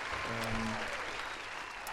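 Steady applause from a crowd, a dense wash of clapping that stays fairly loud and even throughout, with a brief low tonal hum near the start.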